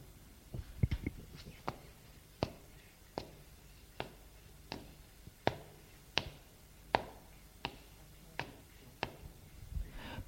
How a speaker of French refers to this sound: Il décida ce samedi matin, avec mon frère, de venir me voir. Ils montèrent les escaliers